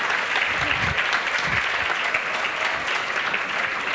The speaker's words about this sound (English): that face says, they're all clapping for me.